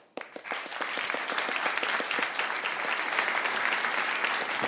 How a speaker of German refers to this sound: Ist kein schlechter Applaus.